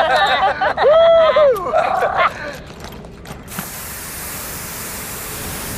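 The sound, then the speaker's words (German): Excited, squeaky voices chatter briefly, then a steady aerosol spray hiss starts and continues evenly, fairly loud, until the end. “Sprühen wir uns rüber?”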